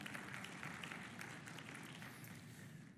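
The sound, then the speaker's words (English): A church audience at a worship service claps steadily as an offering of praise to God, a dense patter of many hands blending into a continuous wash of applause that sounds soft, with no talking over it. “Somebody give a little clap offering of praise to the Lord God.”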